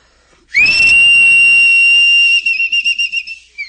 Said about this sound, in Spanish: Está bien, pero chiflele bien, ¿eh? No le vaya a lanzar saliva con el aire. Vamos a ver. Ahí te va este chiflido.